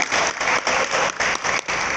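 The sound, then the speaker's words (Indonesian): An audience applauds together for the Lord Jesus, a dense, steady wash of many hands clapping at full volume, with slight rhythmic swells and brief dips throughout, and no voices standing out. “Kita berikan tepuk tangan bagi Tuhan Yesus.”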